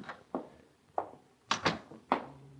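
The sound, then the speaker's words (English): An apartment door, found slightly ajar, is knocked on, opened and closed, heard as a series of six sharp wooden thuds and clunks at uneven intervals, fairly quiet, with no voices. “I found the door to the apartment slightly ajar, so I knocked. I thought I heard a voice say, Come in, so I did.”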